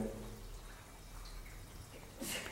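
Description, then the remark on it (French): Faint, soft trickling and dripping of water inside radiator pipes, steady and low, with a brief louder splashy gurgle near the end. No one speaks. “On pourrait prendre euh, le bruit de l'eau du radiateur plutôt que le bruit de l'oiseau.”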